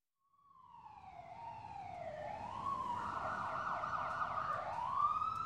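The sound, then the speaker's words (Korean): An ambulance siren wails with a rising and falling tone, starting faint far away and growing steadily louder as it draws closer, stopping below an apartment building, with a low rumble of traffic underneath and no voices. “멀리서 구급차 사이렌 소리가 들렸다. 그냥 지나쳐갈 줄 알았던 사이렌 소리가 점점 더 가까워졌다.”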